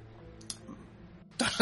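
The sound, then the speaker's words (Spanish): A short, harsh cough bursts out near the end after a quiet moment with a faint throat sound, loud. “Interludio de eh, tos mutante.”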